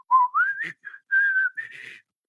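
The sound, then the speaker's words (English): A man on a cavernous subway platform whistles a short, slow melodic ballad phrase, with sustained notes and gentle pitch glides between them, clear and fairly loud with no talking. “Having to stand in that cavernous T platform and listen to this guy whistle.”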